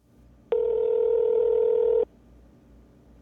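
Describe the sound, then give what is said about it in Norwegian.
A phone call is placed: a single steady electronic telephone tone sounds loudly for about a second and a half, like a line ringing, then cuts off abruptly, leaving a faint background hum and no voices. “da gjør vi det enkelt. Vi ringer Viktor.”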